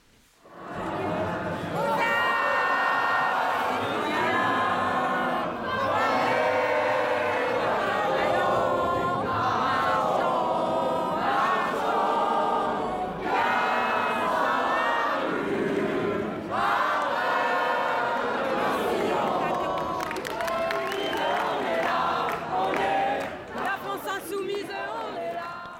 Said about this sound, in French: Quelques minutes plus tard, des larmes couleront, puis la foule entonne des chants anti-Le Pen, puis une Marseillaise.